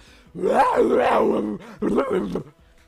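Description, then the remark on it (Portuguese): A person imitates a gorilla in heat with two loud, strained yelling roars, the first long and wavering in pitch, the second shorter after a brief pause, with no other talk. “Ai, ó, quando eu tenho numa briga, eu começo a gritar, eu grito igual um gorila no cio, né? Mais ou menos assim, o meu gorila no cio que eu faço.”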